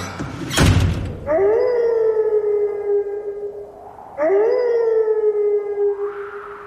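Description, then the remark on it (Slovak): A wolf howls twice, each long mournful call sliding up and then holding a steady pitch for a few seconds, clear, after a brief sharp knock at the start. “Začína sa totiž hodina vlka.”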